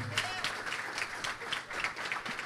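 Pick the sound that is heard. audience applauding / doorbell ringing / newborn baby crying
audience applauding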